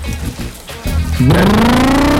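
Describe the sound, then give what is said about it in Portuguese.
A motorcycle engine revs up sharply, its pitch climbing steadily as it accelerates, loud, after a brief rumbling start. “Acelera, acelerando.”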